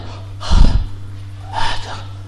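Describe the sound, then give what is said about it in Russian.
A person imitates heavy, congested breathing through a nose and nasopharynx blocked with mucus: two loud, rough, snorting breaths about a second apart, over a faint steady hum. “Таким образом, слизь, она увеличивается вот в этих местах, в носоглотке, в носу. Тяжело дышать.”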